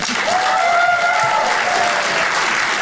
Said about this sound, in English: I always like to close my shows by taking a little poll. Uh, by applause, who here is 50 and older? Applaud if you are 50 and older.